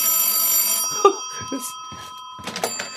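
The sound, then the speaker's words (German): A telephone bell rings loudly in one sustained jangling burst that cuts off after under a second, followed by a few soft clicks and handling sounds. “Das Telefon klingelt.”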